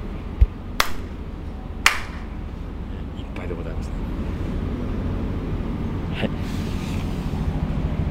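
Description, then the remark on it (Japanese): Two crisp, sharp ritual hand claps at a shrine, made after bowing twice, spaced about a second apart, followed by a steady low rumble with a couple of faint clicks. “えー、まず一例でございますしてえー、2杯二回お辞儀をいたしましてで二拍手ございますね”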